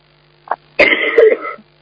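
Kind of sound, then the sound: human body sound, cough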